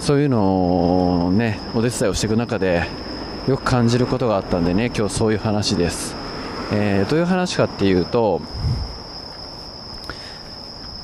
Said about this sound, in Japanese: ちょっとその前にあれですねこれ虫の声入ってますかねもう虫の声が秋ですよね